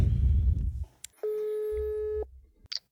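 A single steady telephone ringback tone sounds for about a second as a call is placed, clear and fairly loud, after some low handling rumble, with a brief click near the end.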